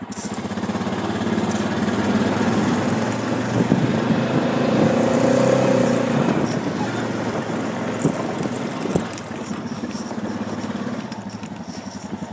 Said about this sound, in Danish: Jeg er lige øh, sprunget op på min ATV'er, en firehjulet crosser, og er på vej op til min hønsegård. Vi kører.